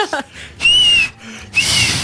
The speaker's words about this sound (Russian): И, а я выходила так, иногда делала так, два пальца в рот, и как свист, свистну так.